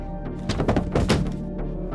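A heavy body hits the floor nearby with a cluster of dull, muffled thuds over about a second, then settles into quiet low rumble.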